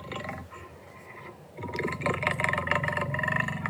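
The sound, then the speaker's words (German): A deep, rumbling lion roar, one long sustained growl that swells louder halfway through and holds its rough, throaty tone to the end, with no talking. “Da ist noch ein Leuen, wie ein Leuen tönt.”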